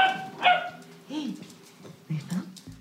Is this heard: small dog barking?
yes